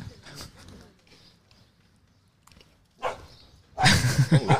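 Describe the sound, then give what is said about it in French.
A dog barks in short bursts, one early, then a sharper bark and a louder volley of barks at the end, with quiet background sound and faint voices between. “Le chien est jaloux.”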